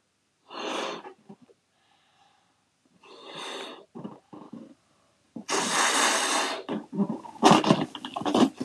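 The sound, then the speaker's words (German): Someone blows up several party balloons taken from a box, with forceful, breathy puffs separated by pauses, building to one long, loud blow. A few sputtering bursts at the end come as the balloons are let go all at once to make farting noises. “Also ich blase die auf und lasse dann alle gleichzeitig pupsen.”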